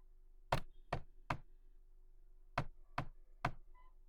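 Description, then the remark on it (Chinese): Knocking on a door: three firm, evenly spaced knocks, a pause of about a second, then another set of three. No one speaks. “谁在敲门呀？”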